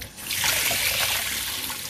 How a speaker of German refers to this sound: So, jetzt wasche ich mir erstmal die Hände.